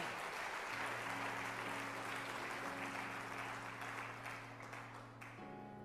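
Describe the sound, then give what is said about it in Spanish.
An audience claps loudly and steadily for several seconds in praise to God during a sermon, a dense continuous wash of applause, while a sustained low keyboard chord hums underneath and shifts near the end. “Vamos, dele fuertes palmas a Dios.”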